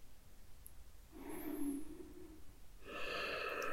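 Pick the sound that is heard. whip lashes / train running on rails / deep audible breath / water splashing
deep audible breath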